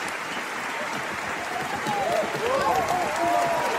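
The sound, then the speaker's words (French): Steady, dense applause from a large audience after a concert, a continuous wash of clapping with a few cheers and whistles rising above it toward the end. “Je vais laisser les applaudissements.”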